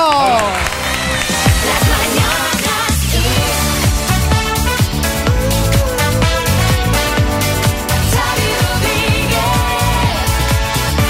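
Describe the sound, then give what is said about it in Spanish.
A loud, steady burst of audience applause and cheering in Valladolid fills the whole stretch, with dense clapping and shouts blended over rhythmic, music-like sound and a few voices. “Un aplauso.”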